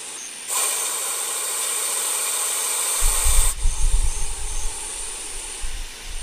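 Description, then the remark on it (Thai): A cobra blows air out, giving a loud, sustained breathy hiss lasting about three seconds, followed by softer low puffs and rumbling blowing noises, with no one speaking. “งูเห่าที่มีชื่อเป็นแบบนั้นเนี่ยเหตุผลเพราะว่าเสียง นี่แหละครับ มันจะมีเสียงฟอฟอฟอฟออย่างเงี้ยนะครับความจริงม็คือเสียงพ่นลมได้แหละครับ”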